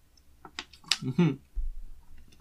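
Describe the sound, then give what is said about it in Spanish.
Sounds of someone drinking water: a few sharp clicks and a short gurgling swallow, then a soft low thump, with no talking. “Siempre me escuchan tomando agua, la verdad es que lo siento.”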